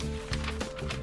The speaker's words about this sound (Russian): вот слышишь, да, звук? Или нет? Ну, я слышу звук. Э, да. Я... Это, И это, что? это звук дешевой э, тоненькой бумаги, которая, во-первых, всегда просвечивает, который э, ну, неудобно на ней писать.